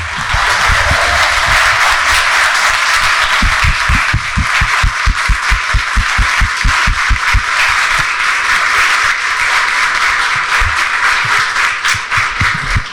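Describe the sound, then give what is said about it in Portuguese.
An audience on its feet applauds loudly and continuously to welcome a speaker, a dense wash of clapping with a stretch of steady, rhythmic low thumps in the middle, like people clapping or stamping in unison. No one speaks. “Mas é ele, e eu acho que nós deveríamos recebê-lo de pé uma salva de palmas”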